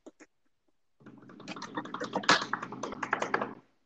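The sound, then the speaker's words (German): Two quick taps, then a brief pause before fingers drum rapidly on a tabletop in a loose, building roll for about two and a half seconds, fairly loud. “Okay, und jetzt Trommelwirbel bitte.”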